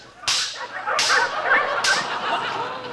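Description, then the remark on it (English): Three sharp whip cracks snap out about a second apart as sled dogs are driven through the snow in Alaska, with a busy, faint yipping and barking filling the gaps between cracks. “Come on, Costello, drive those dogs.”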